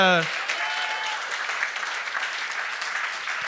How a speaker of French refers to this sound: On, on, va donner une bonne main d'applaudissement à toutes ces...